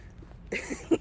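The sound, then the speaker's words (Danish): Digging in sand: a few short, gritty scraping bursts in the second half after a quiet start, fairly soft, with no talking. “Øh, vi er lige i gang med at grave igen, så det, det man kan høre i baggrunden.”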